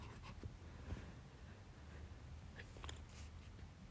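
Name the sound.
pen scribbling on paper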